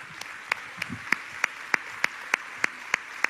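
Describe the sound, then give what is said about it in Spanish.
Audience clapping at a church community gathering for the multimedia, creative and outreach team who prepared the series, in a steady, even rhythm, about eleven sharp claps in unison at a brisk regular beat, moderately loud, with no talking. “Un aplauso le damos a todo el equipo de multimedia, creativo, alcance que estuvo trabajando en la preparación de esta serie.”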